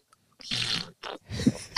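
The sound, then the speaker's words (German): Wet slurping sounds of someone drinking water from a flavour-ring bottle: three short sips in quick succession, with liquid gurgling and no talking. “Dann schmeckt es nicht, kommt einfach Wasser raus.”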